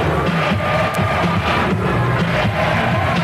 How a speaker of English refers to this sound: Here it is. Kenny Lofton again going high over the rim. Takes it all the way down below his knees. Backwards dunk. The crowd goes crazy.